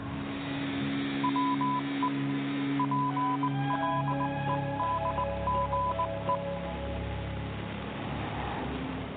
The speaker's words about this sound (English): Magic interview machine. Morse code me some